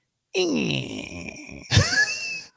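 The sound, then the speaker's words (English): A voice mimics the squeak of a front bathroom door: a drawn-out, creaky groan sliding down in pitch, then a sharper rising squeal, fairly loud, lasting about two seconds. “we're watching something kind of spooky on TV right and the front bathroom door squeaks you know oh right so while we're just sitting there I just hear this”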